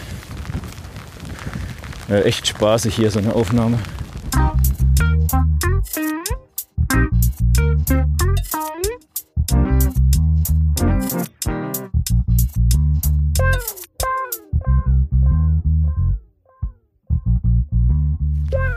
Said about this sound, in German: Ich glaube, ich muss jetzt hier Warum mal kurz eine Pause machen. Warum? Weil man sonst gar nichts versteht. Jetzt kommt hier gerade der Wind so von der Seite.